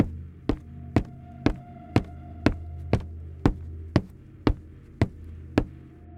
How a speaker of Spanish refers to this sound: Estaba cantando y bailando bajo la regadera, cuando escuché los talonazos.